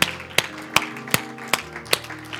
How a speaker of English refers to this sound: Give the Lord a hand clap of praise in this house. Hallelujah.